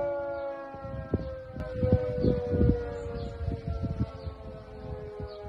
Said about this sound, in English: That, that sound there, that is the old air raid sound that we used to have here in New Zealand. So this is only a minute long. Let's have a quick listen to it.